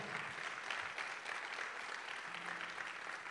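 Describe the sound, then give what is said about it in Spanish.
A church audience claps together for the Lord in sustained, dense applause that stays steady and fairly loud throughout, with no one speaking over it. “¿Cuántos le dan un aplauso al Señor?”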